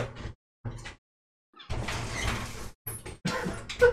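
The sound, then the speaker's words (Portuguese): A window being slid open to let a cat in: a few short knocks and rattles, then a long grinding scrape of the frame, followed by more clattering bumps, with no voices. “eu preciso deixar a gata entrar e dessa vez a gata não tá entrando pela porta. Ela tá entrando pela janela.”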